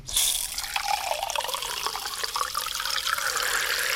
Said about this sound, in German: Und jetzt muss man das Glas so hoch mit Wasser befüllen, das machen wir jetzt auch, dass das gerade so im Wasser ist.